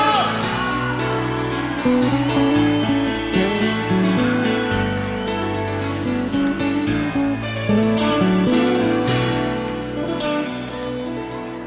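A lively song sung by a female singer over a dense band and steady driving percussion, loud and continuous throughout, with a faint crowd presence in the background.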